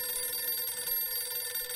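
A telephone rings steadily with a bright, buzzy tone that holds unbroken for the whole moment, clear, with no voices; the call wakes sprinter Pietro Mennea on the morning before the 200 metres final at the Moscow Olympics, from Barletta.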